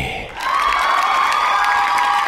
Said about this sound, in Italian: Applausi